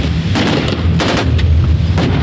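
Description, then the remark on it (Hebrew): A ship's Typhoon gun, gun 25 aboard the Dvora, fires shells set ten rounds three seconds apart: about four heavy, sharp booms at uneven intervals, each cracking out over a constant loud low rumble, with no voices. “תותח, תותח 25, זה התפקיד שלי בספינה. טייפון לכיוון עשרה פגזים בהפרש של אה, שלוש שניות בין פגז לפגז.”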